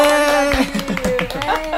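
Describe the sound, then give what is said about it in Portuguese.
A short burst of clapping from a small group, the claps irregular and overlapping, over a steady sustained musical tone, welcoming a guest, an entrepreneur and content creator, onto a show. “Uma salva de Aê! palmas.”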